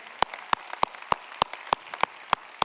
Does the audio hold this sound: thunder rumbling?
no